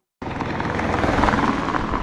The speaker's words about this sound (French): par le ronronnement particulier des voitures qui roulent dessus, cette route solaire s'est intégrée au paysage et n'aura pas beaucoup marqué le quotidien des habitants de Tourouvre